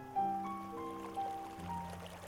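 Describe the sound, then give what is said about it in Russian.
A small stream gently babbles and trickles beneath soft sustained musical tones, steady and unbroken, with no voices; the stream flows around Eltz Castle in a secluded valley. “Тишину разбавляет нежный звук речушки, которая обнимает эту крепость.”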